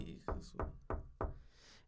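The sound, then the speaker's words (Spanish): Four sharp knocks, evenly spaced at a steady, deliberate pace, as if rapping on a door, fairly loud, with faint background murmur between them. “Y luego me dice, mi, mi novia me dice, tengo miedo, tengo miedo porque no están tocando la puerta y no hay nadie.”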